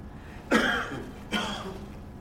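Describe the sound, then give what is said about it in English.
A quiet cough breaking a shared silence, revealing a large, rumbling voice: two short, soft bursts about a second apart, the first slightly stronger, with faint stillness around them and no talking. “Inside this first silence that we shared was suddenly a cough. A quiet cough, but a cough that revealed a large, rumbling voice.”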